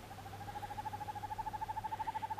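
A northern hawk owl calls with a long, rapid rolling trill of evenly spaced hoots, medium-pitched and steady, growing louder over about two seconds over a faint low hum.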